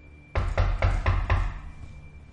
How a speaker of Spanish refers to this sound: le empezaron a tocar la puerta de su... su cabina. De su cabina. La abre, pues eran unos rescatistas. Lo encontraron por fin.